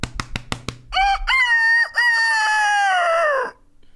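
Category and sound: vocal imitation, human imitating rooster crowing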